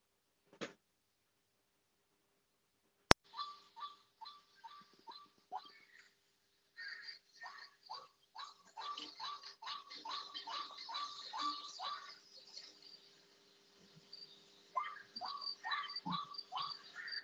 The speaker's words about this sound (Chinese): 请大家听一下白胸苦萼鸟的叫声。